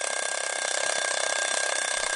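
A mechanical alarm clock rings loudly and continuously, its bell rattling in a fast, unbroken metallic clatter that never pauses. No one speaks over it.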